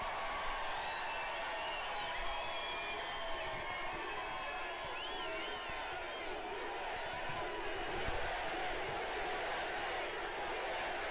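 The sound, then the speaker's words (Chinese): At a political rally in Georgia, a large crowd chants "USA" together, a loud, steady roar of many voices with cheers and shouts rising over it throughout. “民众大喊 USA。”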